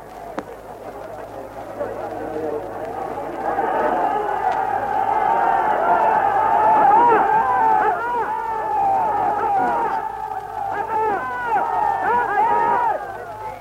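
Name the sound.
angry crowd shouting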